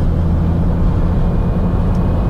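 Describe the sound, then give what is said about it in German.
A steady, loud low drone of a three-cylinder car (110 PS, 200 Nm, a little over 1.2 tonnes) cruising at 130 km/h on the motorway, engine hum blended with road and wind rush, constant and unbroken with no voices. “Also der Dreizylinder stört auch auf der Autobahn nicht.”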